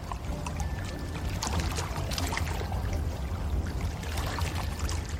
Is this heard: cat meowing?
no